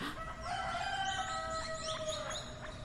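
A rooster crows in one long, drawn-out call lasting a couple of seconds, loud, with faint bird chirps and a steady background hiss around it.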